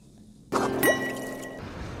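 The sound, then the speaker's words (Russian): Canadian Pinot Noir red wine is poured into a glass: a sudden gurgling splash, then a rising trickle as the glass fills, for about a second before it stops. “И вот, пожалуйста, Канадский пенонуар. Ваше здоровье, пейте то, что полегче.”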